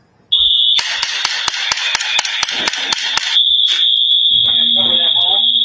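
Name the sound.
alarm ringing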